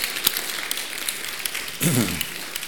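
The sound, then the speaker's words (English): A church audience claps together during a morning worship service, in a steady, dense burst of applause that fills the whole clip at an even level, with a brief voice rising faintly over it near the end. “Let's give a good clap if we're going to clap.”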